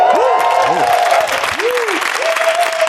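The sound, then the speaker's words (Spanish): A studio audience on a television show set claps steadily and loudly throughout, while several voices let out rising and falling whoops and cheers over the dense applause. “Si, si alguien quiere arrancarse con un ¡uh! y un aplauso, eh, puede hacerlo.”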